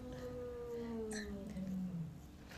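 Cats in a brawl make long, drawn-out yowling cries that waver and slide in pitch against a steady background hiss, with no talking.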